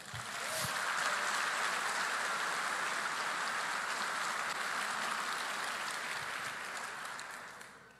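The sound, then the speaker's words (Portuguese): An audience applauds the Lord in a steady, dense wash of clapping that holds for several seconds at an even level, then begins to thin and fade near the end. No one speaks over it. “Aplauda ao Senhor.”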